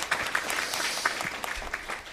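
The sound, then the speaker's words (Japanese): A church audience at a Christmas service applauds together in thanks for the hymn singing, a dense, steady patter of many hands clapping at an even loudness throughout, with no voices rising above it. “えー、もう一度皆さんの大きな拍手で感謝したいと思います。”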